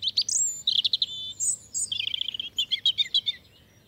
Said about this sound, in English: On at least two occasions, the robin redbreast has won the popular vote to become the UK's unofficial national bird. So clearly, although small, it packs a mighty symbolic punch.